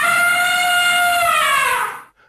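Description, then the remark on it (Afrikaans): An elephant trumpets once: a loud, brassy, horn-like blare held for about two seconds, its pitch sliding slightly downward before it cuts off abruptly into silence. “Ek kan dit selfs gebruik om 'n groot geraas te maak as ek wil. Ons noem dit olifant trompeter.”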